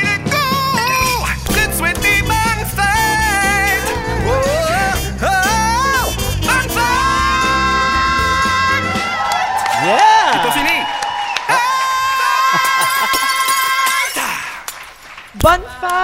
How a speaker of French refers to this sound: elle aimerait entendre le bonne fête